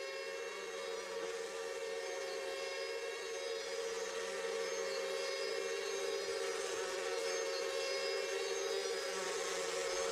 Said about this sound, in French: Il n'est donc pas surprenant d'y entendre les bruissements de mouches.